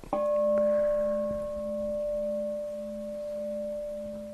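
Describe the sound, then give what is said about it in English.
A single meditation bell is struck once, its clear, pure tone ringing out and sustaining steadily for several seconds with a slow, gentle fade and no voices. “Guy rang the bell last night.”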